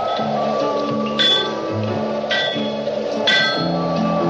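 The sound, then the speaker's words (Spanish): Three sharp metallic hammer blows ring out roughly a second apart, each with a brief clanging resonance, over a steady droning musical background, as a young man hammers at a shed in a rocky desert. “Al poco, Llegan a un cobertizo donde un joven martillea.”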